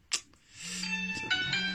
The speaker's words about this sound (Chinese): 哎呀，抱歉啊，又有电话。